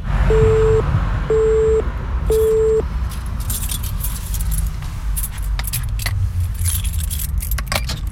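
Three evenly spaced electronic beeps, then metallic keys jangling and clinking as the lock of a prison door is worked at the Montluc prison national memorial, over a steady low rumble with no voices.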